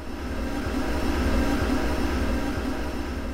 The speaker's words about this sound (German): Aber nein, das ist nur das heiße Wasser aus der Quelle, das unter hohem Druck durch die vielen Metallrohrleitungen im Gewächshaus schießt.